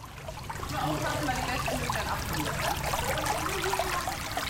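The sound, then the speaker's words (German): Spring water bubbles and trickles steadily from springs created by drilling, a continuous gurgling flow with busy splashing detail that stays even throughout. “Nun sprudelt es aus 19 Quellen, die durch Bohrungen entstanden sind.”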